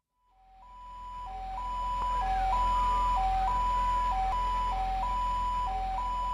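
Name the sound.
ambulance siren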